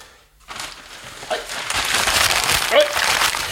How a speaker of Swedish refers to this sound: Ja, då ska vi se, då kommer det in, nu ska jag bara hämta bunten med papper.